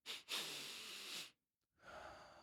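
A breathing demonstration of a technique for quickly lowering stress: a quick sniff, a second longer drawn-in inhale, a brief pause, then a slow, audible exhale through the mouth, with no talking.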